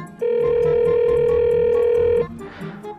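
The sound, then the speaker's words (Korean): A single steady telephone ringback tone drones for about two seconds, clear, as someone calls a friend to check whether they are at the office on a weekend, then cuts off, leaving faint background noise and a soft rustle. “얘 지금 회사인가? 전화해봐야겠다.”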